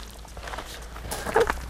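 Several footsteps descend outdoor stairs on a steep path on Bornholm, Denmark, at an uneven pace, with soft scuffs and a slightly firmer step near the end over a quiet outdoor background.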